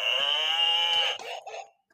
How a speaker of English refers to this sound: heard a cow.